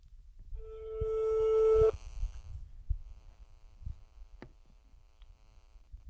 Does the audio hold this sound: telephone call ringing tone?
yes